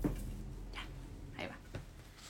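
A dog barks a few times, three short, sharp yelps spaced unevenly over a quiet, low background hum, with no one speaking.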